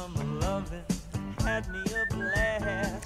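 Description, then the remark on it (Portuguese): A person whistles a melody over loud, upbeat music with steady drum hits, the high thin whistled notes standing out clearly in the second half. “quem está a assobiar é a …”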